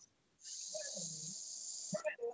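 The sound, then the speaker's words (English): A person imitates a snake's hiss with one long, steady, loud sibilant hiss lasting well over a second, ending with a few short voiced sounds. “Why do you have to do a snake hiss for five minutes when he called him Scorpio Sky?”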